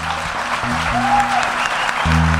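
Steady audience applause, a dense wash of clapping at an even level throughout, with low sustained musical notes playing underneath and a brief high whistle-like tone partway through.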